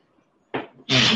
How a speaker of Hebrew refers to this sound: בריאות.